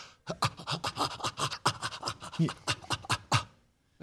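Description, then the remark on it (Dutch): A person imitates the coughing play pants apes make with the mouth wide open and teeth covered: a quick series of breathy, huffing pants in rapid rhythm, fairly loud, about a dozen bursts running for several seconds. “En dan, dan geven ze kuchende geluiden.”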